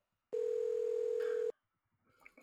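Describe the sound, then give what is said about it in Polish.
A telephone dial tone: one steady, loud, single-pitched hum lasting just over a second that cuts off abruptly, followed by faint soft rustling, as someone dials to place a call. “Dobra, dzwonię.”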